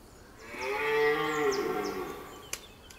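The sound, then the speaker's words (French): A stag bellows once during the rutting season at Boutissin around sunrise, about 7 in the morning: a deep, drawn-out, groaning roar lasting about a second and a half, loud, with faint bird chirps and a sharp click in the background. “Armé de son téléobjectif, il est ici pour traquer le cerf durant la saison des amours.”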